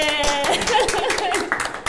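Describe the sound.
A steady burst of rapid hand clapping runs for the full two seconds, bright and crackly, with a voice or brief laughter faintly mixed in at the start.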